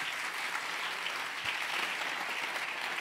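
Steady applause from a crowd fills the scene, a dense continuous patter of many hands clapping at once, sustained evenly without pause and with no voices standing out.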